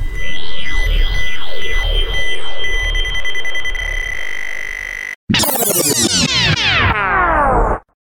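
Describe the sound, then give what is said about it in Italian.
A time machine travel sound effect: loud, warbling electronic swoops over a steady high tone, a brief silent break, then a rush of dense rising sweeps that cut off abruptly. No one speaks. “Prendiamo la nostra macchina e si torna indietro nel tempo.”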